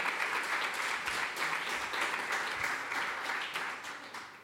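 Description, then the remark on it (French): A crowd at the event 'Le tribunal pour les générations futures' applauds steadily as the first witness is called to the stand: a dense wash of many hands clapping at once that holds its level for several seconds and fades slightly at the end. “Merci de l'applaudir.”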